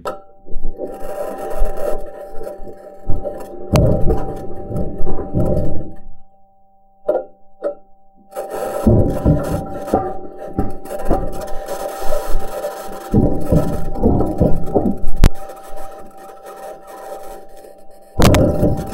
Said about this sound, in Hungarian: és aztán ugye felvették azt is, ahogy, ahogy gurul, és hát itt meg ugye azt lehet hallani, hogy a fémkerekek nyüstölődnek, meg koppannak a, a köveken.